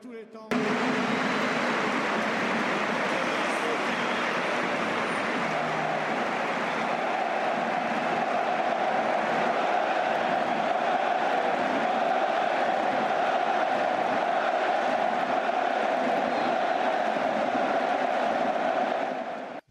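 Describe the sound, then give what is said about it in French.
A stadium crowd at the Stade Vélodrome in Marseille, both teams and all supporters, applauds in tribute to Pelé just before kickoff of Marseille versus Toulouse, a dense, unbroken wash of clapping that holds steady for about twenty seconds, with a sustained roar of voices swelling underneath partway through. “Juste avant le coup d'envoi entre Marseille et Toulouse, euh, les deux équipes et tous les supporters ont applaudi pour lui rendre hommage.”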